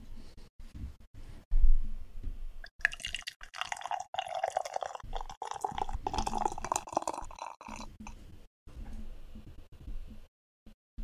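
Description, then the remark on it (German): A raspberry sour beer is poured into a glass in a steady, bubbling, gurgling stream lasting about six seconds, preceded by a few soft clicks and taps, with no talking. “Schenken wir es mal ein.”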